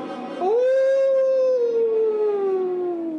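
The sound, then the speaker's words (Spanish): A single long, faint, distant howl of a gigantic hound rises sharply, then holds and slowly falls in pitch, rich in harmonics, sustained for about three seconds with no one talking. “Y mientras pronunciaba la última frase, oí a lo lejos el débil aullido de algún gigantesco sabueso”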